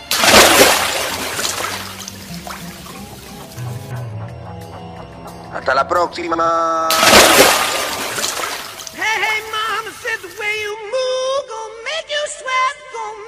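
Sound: splash into water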